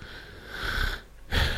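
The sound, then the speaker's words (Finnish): A voice imitates a game character's heavy panting: one long, rasping breath followed after a brief pause by a shorter, sharper gasp, fairly loud, with no talking. “Mutta se on niinku selkeästi sellainen elementti siinä pelissä, että hahmo huohottaa, kun”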